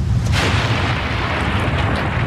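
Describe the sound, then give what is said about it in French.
Storm thunder rolls in one long, loud, deep rumble that barely lets up, with a rough noisy wash layered over the booming low end. No one speaks. “Oh, quel bel orage”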